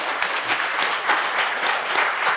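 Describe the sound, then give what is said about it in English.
An audience applauds the guests steadily, a dense wash of many hands clapping at once, fairly loud and sustained throughout with no voices rising above it. “Let's give a big round of applause to our guests.”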